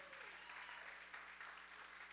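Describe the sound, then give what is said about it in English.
An audience breaks into steady, dense applause celebrating the news of an expected child, many hands clapping together in a continuous wash of sound that holds at an even loudness throughout. “We should be clapping about that, right?”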